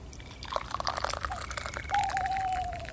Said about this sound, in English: While you wait, do you want to mug a hot chocolate out of our thermos? What a grand idea. Yes, please.